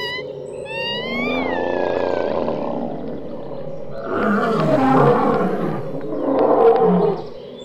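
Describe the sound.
Loud, deep roars of the wild things from Where the Wild Things Are, a long rumbling roar followed by two shorter, rougher bursts, growling, with no talking.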